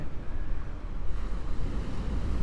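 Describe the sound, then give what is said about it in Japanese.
Steady wind buffeting an outdoor microphone fitted with a sponge-like cover at the seaside, a loud low rumble with gusty fluctuations, mixed with the wash of surf in the background; no one speaks. “聞こえる風の音とかは大丈夫ですか一応ねこのマイクなんかスポンジみたいのがかぶさってるんですけどね”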